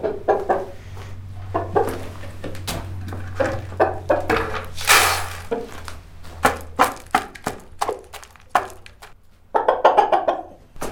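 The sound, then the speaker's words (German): Chickens cluck while a rooster joins in at the Meuschenmühle, an old mill, mixed with a steady run of crunchy scratching and pecking sounds over a low, constant hum. “Jetzt kommt der Gockel.”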